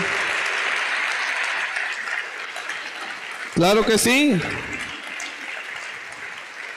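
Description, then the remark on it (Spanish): A church audience applauds loudly and steadily, dense clapping filling the space throughout, with a man's voice briefly speaking over it midway. “Apláudale fuerte a Él. Fuerte, fuerte, fuerte a Él.”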